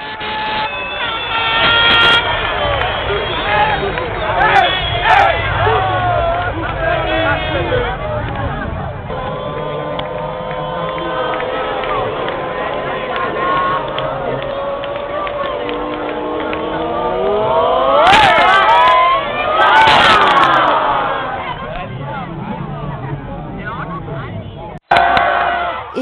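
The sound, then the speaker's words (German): A loud, continuous crowd celebrating Italy's 3-0 goal while watching the football match on a big screen, with cheering voices, blaring horns and shrill rising whistles layered together, swelling to a peak near the end. “Ich hoffe, es fliegen euch nicht gleich die Ohren weg, weil das war das 3-0 für Italien.”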